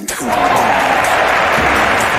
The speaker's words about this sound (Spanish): Así que vamos, ese aplauso para todos.